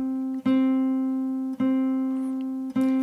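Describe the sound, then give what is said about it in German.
A clear, steady instrument note at one pitch, sounding clean again as the player adjusts left-hand pressure in small steps, rings on with rich overtones, briefly breaking and restarting three times at roughly even intervals. Fairly loud, with no voices. “Jetzt ist der Ton wieder sauber.”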